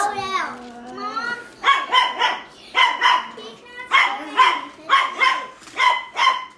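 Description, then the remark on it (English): Dogs bark repeatedly in quick doubled bursts with a steady rhythm, after a brief high whining or voice-like sound at the start. “Can you put the dogs in the backyard, please?”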